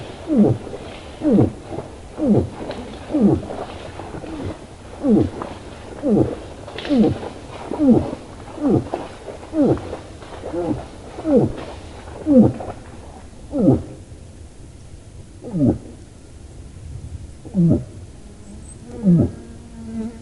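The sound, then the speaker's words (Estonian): A moose gives a long series of short, low moaning grunts in a steady rhythm, about one per second, clear, spacing out and growing sparser toward the end. “ka emased põdrad häälitsevad.”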